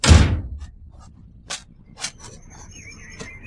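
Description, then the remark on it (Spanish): A heavy metallic clunk as the bolt of a house door is slid back, followed by a few sharp clicks and a thin creaking squeal as the door swings open, with no voices. “Descorra el cerrojo. Tiene que salir inmediatamente”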